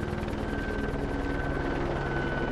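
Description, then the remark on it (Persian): A logging company's helicopter that was surveying the area drones steadily overhead, its rotor chopping in a fast, even pulse over a loud engine whine that holds constant throughout, with no voices. “واقعا که حضور اون هلیکوپتر تو منطقه اونا و تو اون لحظه یه معجزه بود.”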